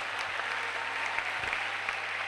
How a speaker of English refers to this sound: Clap for the choir. Clap for the choir.